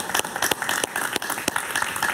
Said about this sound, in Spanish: Un aplauso para Alberto, por favor.